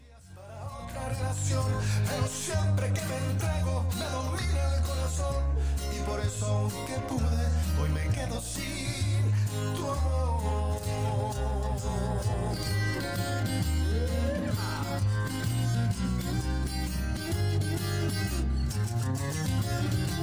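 A slow Mexican pop ballad plays steadily at full volume, with a sung melodic line over rich chords, a deep steady bass and gentle percussion throughout, with no talking.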